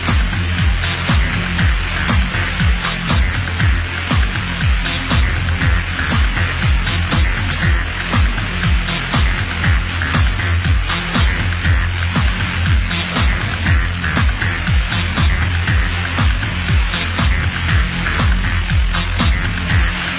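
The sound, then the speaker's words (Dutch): A loud acid house track from 1988 plays throughout, driven by a steady, pounding kick-drum pulse, a thick repeating bassline and bright hi-hat ticks, with no one talking over it. “In 1988 maakt … dit nummer.”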